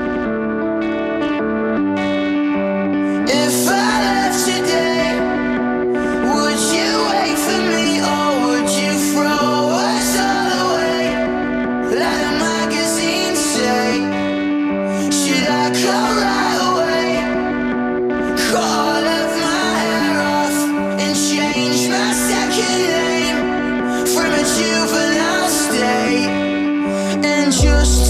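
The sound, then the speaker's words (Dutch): A new pop-rock single with a male lead vocal over layered, effects-heavy guitars, played on the Daily Kink, loud and continuous from start to finish with a steady driving beat. “Maar nu is het weer tijd voor zijn eigen nieuwe muziek.”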